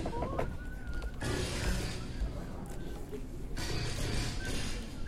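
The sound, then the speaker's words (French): Four nightingales sing outdoors, sharp whistled notes and rapid trills rising over a steady, noisy background; the song comes in bursts, some phrases louder than others. “Je crois qu'il y a quatre rossignols autour de moi.”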